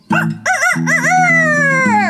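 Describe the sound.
A rooster crows a loud cock-a-doodle-doo, starting with a couple of short rising notes and ending in a long, drawn-out call, with no one speaking.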